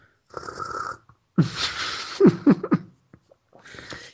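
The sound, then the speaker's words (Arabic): Wet gulping as someone drinks cola, a few throaty swallows in quick succession between short pauses, fairly loud with no talking. “ما دروا اني كل الحلقات قاعد اسجلها وانا قاعد اشرب كولا جالس تبلع والله هو ابلع بس اشرب كولا”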